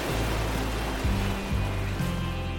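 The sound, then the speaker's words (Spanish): A steady, rushing wash of ocean surf fills the whole stretch without pause, with low sustained tones shifting quietly underneath. No voices are heard. “Pensar en, en una playa tibia bajo el sol, sintiendo el aire en tu cara, el aire jugando con tu pelo, oyendo las olas del mar”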